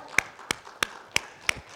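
Five sharp hand claps land in a steady, even rhythm, about three per second, like the first beats of applause in a church acknowledging those who have served the Lord, with no talking.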